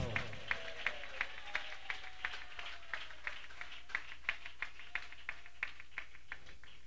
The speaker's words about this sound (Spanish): Dele palmas a Dios si lo sienten esta hora.